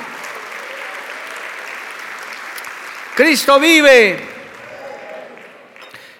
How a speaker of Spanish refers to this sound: Dale un aplauso a Cristo, hermano, a su nombre, gloria.